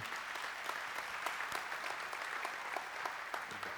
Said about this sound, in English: Thank you. Let's, let's give him a round of applause.